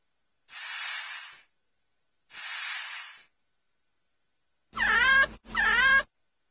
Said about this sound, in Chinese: 记住哦，我们要仔细听，听听榕鼠的声音在哪里。Listen。